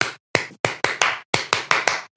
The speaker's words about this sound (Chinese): 其实我们拍一个就是在自然聊天当中非常难以出现的一个有节奏的一个声音。后期对起来会比两声会更会更容易一些吧